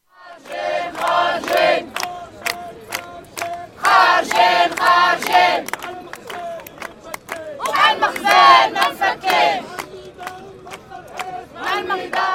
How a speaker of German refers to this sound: So hören sich Demonstrationen in Marokko an.